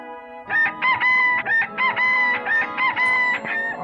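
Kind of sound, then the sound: bird, rooster crowing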